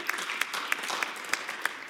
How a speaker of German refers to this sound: können wir aufhören mit diesen halben Klatschern? Hey, entweder, come on, entweder sind wir alle mit dabei oder.